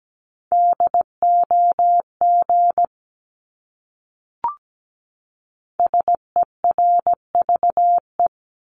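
Morse code for a common English word, sent at 17 words per minute as a steady mid-pitched tone keyed into short and long beeps, in two bursts separated by a pause with a single click between them; no voices.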